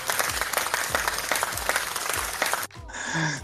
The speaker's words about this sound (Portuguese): Gente, nós temos uma ouvinte. Aplausos.